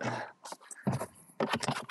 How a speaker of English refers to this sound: Sorry about the noise, people. Jesus Christ. I've got to like put heavy shit on these boxes so the cat doesn't get in and tear this shit up.